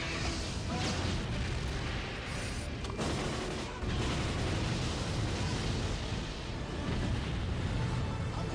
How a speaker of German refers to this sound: Alter, was für eine Explosion.